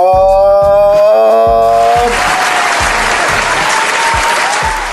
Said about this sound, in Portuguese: Mais uma salva de palmas para essa pequena guerreira!